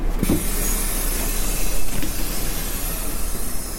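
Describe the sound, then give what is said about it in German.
A bus rumbles by at a bus stop and turns back around, outside the Anhalt-Bitterfeld district administration in Germany, with steady engine and road noise, holding an even loudness throughout with a brief swell midway and no voices. “Oh, jetzt dachte ich erst, der Bus wäre vorbeigefahren an der Bushaltestelle, aber der hat nochmal umgedreht.”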